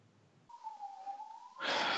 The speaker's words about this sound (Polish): Można to dodać, że prawdopodobnie słychać w tle 60 straży pożarnych, bo chyba dowiedzieli się o tym, że nasz podcast jest tak gorący.